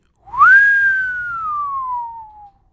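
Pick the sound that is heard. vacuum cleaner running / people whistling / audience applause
people whistling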